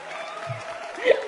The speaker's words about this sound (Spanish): Aquí van los aplausos.